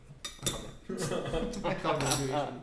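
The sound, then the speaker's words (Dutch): A couple of sharp glassy clinks, then a blond, hoppy beer pouring steadily into a glass, a continuous frothy gush that rises slightly in pitch as the glass fills. “Ik ga hem even inschenken.”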